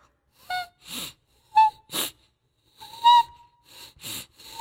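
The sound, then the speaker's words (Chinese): A voice imitates stifled crying through the nose, with the mouth pressed tightly shut as if wanting to cry out but unable to: a series of short, strained nasal whimpers and gasping sniffs, some with a thin whistly pitch, coming in uneven bursts with brief pauses between. “就这种从鼻子里发出来的哭声。”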